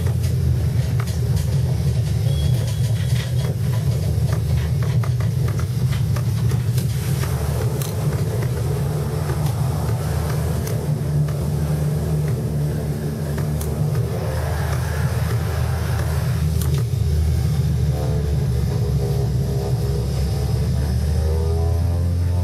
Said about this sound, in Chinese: 对，这个噪音比较大啊，这个就是在飞机内部，它这个飞机是没有消噪的。